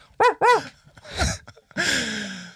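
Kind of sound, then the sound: vocal imitation, person imitating dog barking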